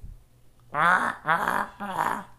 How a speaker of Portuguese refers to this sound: olha que a galinha tá morrendo, essa porra. Ela não. Não carcareja assim.